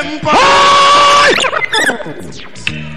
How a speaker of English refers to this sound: if for reality you want, let me hear you holler out Black Lion. Toronto people really.